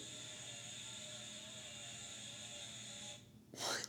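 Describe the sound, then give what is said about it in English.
A children's toy, a tool puzzle, gives off a steady, shrill electronic whine for a few seconds, then a short harsh burst of noise cuts in right before the end. No one speaks. “it's one of Simon's toys. It's really scary.”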